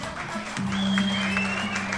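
An audience applauds steadily for about two seconds, a dense wash of clapping that grows slightly louder partway through, with a sustained low hum and a faint high whistling tone underneath.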